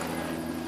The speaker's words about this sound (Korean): 지금 이제 좀 잘 들리기 시작하는데 예, 예, 어때요? 헬기가 좀 멈춰가지고. 헬기가 멈췄다고요?